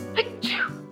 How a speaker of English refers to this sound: No, bless you. I'm not gonna do it. Because do you know where bless you comes from? It's literally blessing someone because sneezes have attributed to being possessed.